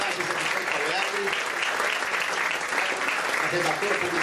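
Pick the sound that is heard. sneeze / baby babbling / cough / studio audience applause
studio audience applause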